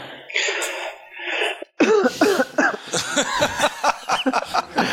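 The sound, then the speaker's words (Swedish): A person coughs in a few rough, breathy bursts, followed by a run of choppy voiced sounds like laughter or sputtering. “Du får hosta tre gånger till.”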